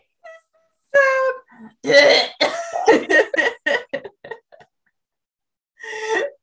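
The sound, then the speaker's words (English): A voice imitates a harsh, guttural choking sound in a burst of rough, strained throat noises, followed by a brief pause and one last gagging rasp. “Such a guttural throat noise.”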